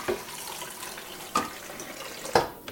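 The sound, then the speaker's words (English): Running tap water pours steadily into a kettle as it is filled, a continuous hiss broken by three sharper splashes or clunks spaced about a second apart, moderately quiet, with no voices. “You open it, you pour out all the old, disgusting water, you fill it up.”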